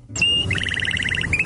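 A canary sings: a bright sustained whistle breaks into a fast, even trill of repeated chirps, then returns to a steady high note, over a faint low rumble.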